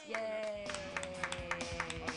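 Steady, rhythmic clapping from a small audience for a performer after his set, quick sharp claps at an even pace, over a sustained humming tonal background with faint murmuring voices.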